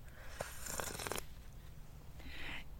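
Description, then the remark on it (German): Noisy slurping of hot peppermint tea: a drawn-out, airy sip lasting about a second, followed by a shorter, softer slurp, with no talking. “schlürfe von Lauras leckerem, bestimmt leckerem Pfefferminztee”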